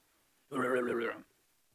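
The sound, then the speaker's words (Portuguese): A person imitates a jaguar's heavy, rasping breath with one loud, voiced huff lasting under a second, rough and throaty, with silence on either side. “E aí, mano, tinha uns, um, uns bichos lá que assim, a onça claramente matava qualquer pessoa. O bagulho respirava, tá ligado? Fazendo um barulho assim, ó.”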